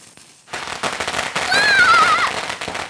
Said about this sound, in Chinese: 小皮被鞭炮声吓了一大跳。 怎么样？吓到了吧？